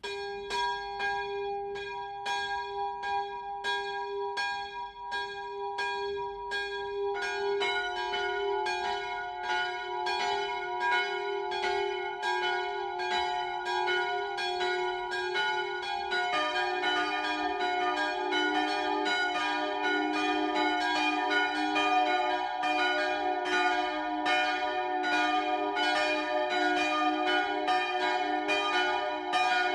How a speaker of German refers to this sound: Es ist 12 Uhr. Das Mittagsläuten kommt heute von der evangelisch-lutherischen St. Johanneskirche im oberfränkischen Hirscheid.